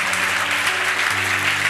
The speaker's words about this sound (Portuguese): Não pode aplaudir Jesus por isso.